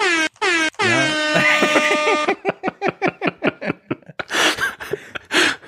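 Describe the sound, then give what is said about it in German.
A loud soundboard air horn blares for about two seconds, followed by a quick string of short choppy bursts and a few breathy, noisy swells. “Gleich alle wegschrecken ja, mit, unseren, mit unseren scheiß Soundboards jetzt.”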